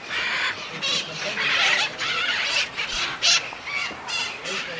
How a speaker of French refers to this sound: Ça, ça piaille beaucoup, ça chante beaucoup. Et encore une fois, ils viennent, ils s'approchent, ils, viennent nous voir.